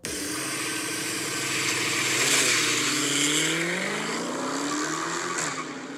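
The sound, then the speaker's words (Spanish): A powerful car engine roars, its pitch climbing steadily as it revs and accelerates hard during a test drive, a loud continuous drone with rising harmonics and no voices. “ese coche que se ve que afecta la rotación de la Tierra cada vez que arranca.”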